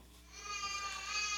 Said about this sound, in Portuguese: Se tem um som bom para a gente ter, é som de bebê.